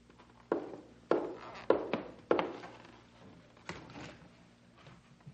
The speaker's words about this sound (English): hear that? It sounds like a horse. Maybe there's a real live person on it.